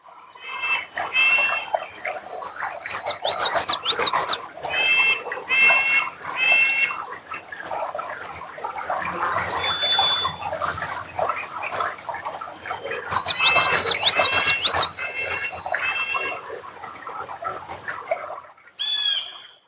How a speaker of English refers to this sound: just listen to how much bird song there is here. And that's partly because of this beaver dam.